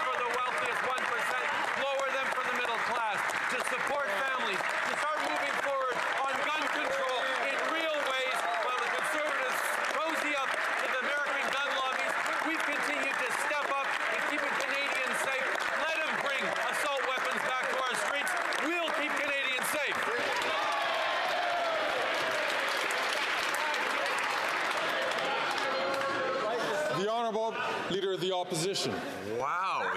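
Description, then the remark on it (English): Members of parliament shout and holler over one another in a loud, continuous din, sustained throughout with scattered clapping-like bursts and no single voice standing out. “Screaming and hollering like that.”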